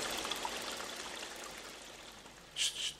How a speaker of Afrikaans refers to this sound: Stop. Ek hoor iets. Ja. Die water. Die stroom word al sterker. As jy sal stil bly, sal jy dit ook hoor.